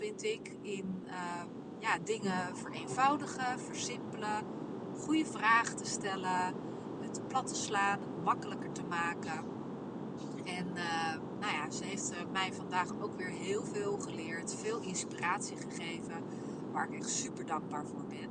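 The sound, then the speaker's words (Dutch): A steady low rumble of car interior road noise runs throughout as the car drives on a return trip, under a voice talking continuously, with no other distinct sounds standing out. “En ehm, ja, je hoort misschien wat dingetjes op de achtergrond. Ik zit nu in de auto op de terugweg”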